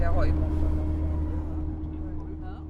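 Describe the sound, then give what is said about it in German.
A steady low rumble of idling engines in a slow traffic jam in Ulaanbaatar, Mongolia, droning continuously throughout, with a faint voice briefly audible near the start. “Nach drei Tagen Fahrt im Minibus kommen wir endlich wieder in Ulaanbaatar an. Verkehrsstau und graue Hochhäuser.”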